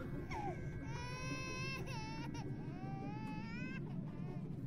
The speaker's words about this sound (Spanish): Con horror vi cómo usaba su teléfono para iniciar el audio de un bebé llorando.